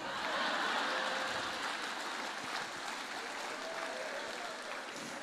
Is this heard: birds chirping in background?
no